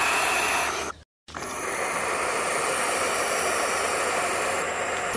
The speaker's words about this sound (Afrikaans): Die nonnetjies uile klink soos 'n radio wat nie lekker opvang nie, maar net so.